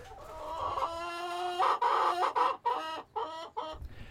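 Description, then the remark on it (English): Household chickens, kept for their eggs for over two years, cluck and squawk in a loud, busy run of calls, rising into a drawn-out crowing cry before breaking into several short, choppy bursts. No one speaks. “our chickens have always been very social, so we're going to enjoy the last of what they have shared with us and given us eggs for the last two plus years now.”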